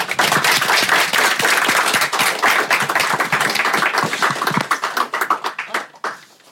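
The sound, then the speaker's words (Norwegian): An audience at an evening event bursts into steady, loud applause for two guests, many hands clapping densely together, then thinning into scattered individual claps and fading out after about five seconds. “En liten applaus.”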